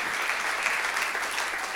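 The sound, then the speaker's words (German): A crowd claps steadily for the speaker's good friend, a dense wash of many hands applauding at an even level throughout, moderately loud with no voices standing out. “Give einen guten Applaus für meinen guten Freund.”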